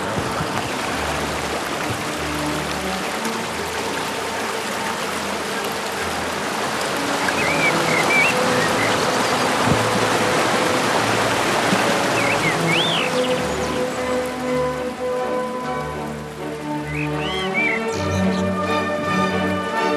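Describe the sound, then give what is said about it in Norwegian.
A rushing waterfall roars in a steady, dense wash of noise for the whole stretch, with a few faint high chirps rising briefly above the churn. “Jeg lurer på om jeg kanskje har innbilt meg lyden hver gang jeg har stått ved en foss før.”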